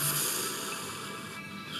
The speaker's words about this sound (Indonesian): Tarik nafas panjang. Hembuskan perlahan.